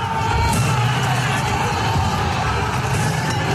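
A loud, dense crowd roars steadily outdoors, many voices blending into a continuous din with scattered shouts, like a noisy street protest filling the whole stretch without pause.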